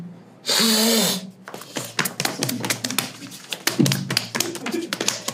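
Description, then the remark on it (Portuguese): A voice makes a short, hissy buzzing sound for about a second, imitating a fly. It is followed by a long run of quick, irregular tapping clicks. “imitar uma mosca.”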